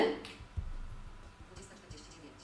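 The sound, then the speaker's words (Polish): An iPad's smart cover case is flipped shut like closing a book, locking the iPad: a brief papery flap and click at the start, then a soft, muffled thump as it settles, fairly quiet overall. “I on w tym momencie się blokuje, ponieważ to etui wspiera y, tak zwane smart cover, czyli jeżeli zamkniemy etui, jeżeli zamkniemy pokrywę, iPad sam z siebie się blokuje.”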